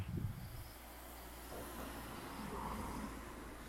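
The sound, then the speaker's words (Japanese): A car engine climbing a slope in Kiyosato hums as a steady low rumble, with a slightly strained, higher whine rising in the middle as the accelerator is pressed to get up the hill, with no one talking. “ここのね、坂を上がってくる車っていうのは、エンジン音がね、結構甲高いというか、まあ、アクセル踏んでいかないとですね、なかなか上がらないので、あの、なかなかね、車の走行音って高くなっちゃうんですけどね。”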